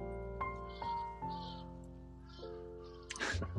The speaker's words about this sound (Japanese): いやー、そうね、なんか、今カラスの声を聞きながら、何喋ってんのかなと思いながらね。もしこういうのがね、分かったら、カラスだけじゃなくて動物とね、もっと話せんのかなと思ったりもするけど。